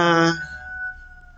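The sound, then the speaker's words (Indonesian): A rooster crows once, opening with a loud, raspy burst and trailing into a thinner drawn-out note that slowly fades away. “itu ayam bisa berhenti berkoko gak sih saya mulai emosi sumpah”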